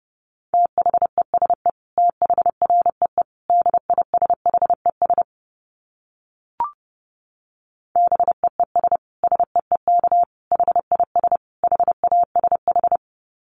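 Fast Morse code dits at 30 words per minute in a steady mid-pitched beeping tone, keyed in quick clusters of short bursts, with a silent pause and a single click midway before the rapid sending resumes.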